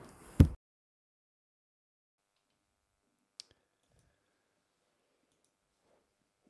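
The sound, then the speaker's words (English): Two sharp button clicks, a louder one at the start and a softer one a few seconds later, with near silence around them and no talking. “Sorry, clicking buttons.”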